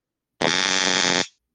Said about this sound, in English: Holy crap! They know what that sound is. Most criminals know what a stun gun is.